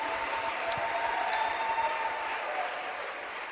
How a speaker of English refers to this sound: Clap your hands for Jesus.